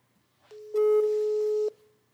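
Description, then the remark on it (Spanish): A single steady electronic telephone ringing tone from a phone call placed live sounds for about a second, clear and fairly loud over a quiet background, then cuts off abruptly. Nobody speaks. “Venga, llama a César en directo.”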